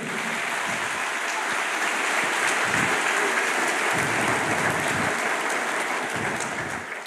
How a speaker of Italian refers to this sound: Amen. Facciamo un applauso al nostro Dio.